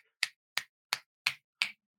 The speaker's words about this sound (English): Snap your fingers.